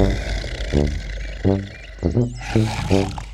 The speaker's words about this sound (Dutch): Alle dieren waren bang voor Bruno, want hij at alles en iedereen op die hij tegenkwam. Gelukkig brulde hij altijd zo hard dat de dieren tijd genoeg hadden om te vluchten.